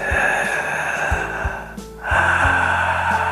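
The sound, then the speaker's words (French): A person breathes loudly and hoarsely in Darth Vader style as a breathing exercise, a long rasping inhale followed by a brief pause and a harsh, drawn-out exhale, with no talking. “Voilà, il s'agit d'une respiration très bruyante.”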